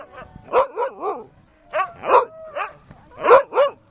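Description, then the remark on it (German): Several husky sled dogs at a holiday centre offering husky sled rides near Nurmes, Karelia, bark and whimper in overlapping bursts, with high yelping cries rising and falling in three clusters and brief pauses between them. “Pia Isumurso hört seit 14 Jahren dieses Geräusch. Seitdem lebt sie mit den Huskyhunden zusammen.”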